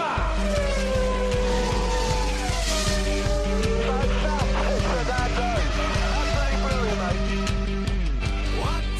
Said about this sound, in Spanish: Evidentemente los Fórmula 1 son los antiguos, los motores V10 que berrean eh, de una manera extraordinaria.